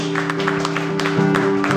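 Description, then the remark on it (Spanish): An audience applauding God at a Christian service, a steady wash of many hands clapping with scattered sharper claps, over a sustained low musical drone. “Denle un aplauso a nuestro Dios.”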